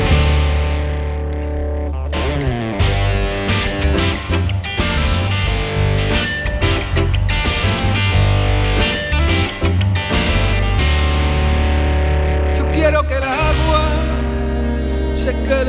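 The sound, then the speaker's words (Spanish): A loud, rock-flavored instrumental intro plays continuously, with heavy distorted electric guitar over a driving bass and drums. The dense, full band sound holds steady throughout with no voices. “Vamos a escuchar esta que le has puesto una introducción un poco rockera, ¿no?”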